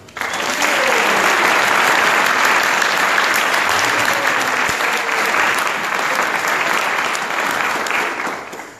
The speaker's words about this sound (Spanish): Un aplauso, por favor.